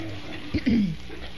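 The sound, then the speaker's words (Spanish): A voice imitates a pig, giving a short grunt followed by a longer, downward-sliding oink, moderately loud against a quiet background. “Todo el mundo sabe que un chancho para hay que amarrarlo.”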